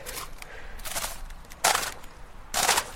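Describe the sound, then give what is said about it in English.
Thin natural ice, out in cold weather, crunches and cracks in three sharp bursts, each with a bright, almost metallic ring, separated by brief pauses and a faint background hiss. “the very sort of metally crunchiness to it.”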